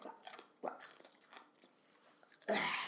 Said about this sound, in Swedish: Det går inte att prata med munskydd med popcorn, eller hur? Nej, du kan tugga, tugga klart den där.